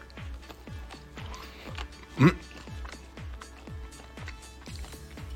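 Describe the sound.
Wet ASMR chewing of fast-food french fries in a steady, quick rhythm of soft bites, with a brief hummed vocal sound partway through.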